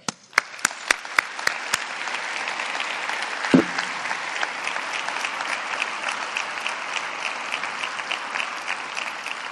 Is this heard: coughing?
no